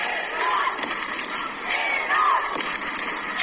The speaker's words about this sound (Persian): اما در این استادیوم کوچک تعداد زیادی زنان ایرانی هم حضور پیدا کردن و در حال فریاد زدن و تشویق تیم ملی ایران هستن صدای اونها رو با هم بشنویم